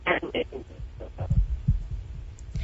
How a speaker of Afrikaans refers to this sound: nee, jy breek nou julle op.